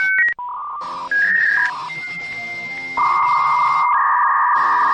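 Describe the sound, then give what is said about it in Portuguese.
A string of electronic telephone dialing tones, steady pitched beeps shifting up and down in stepped notes, held over a faint hiss, loud with no voices. “Deixa eu ver aquele expulso maneiro no telefone quando discava.”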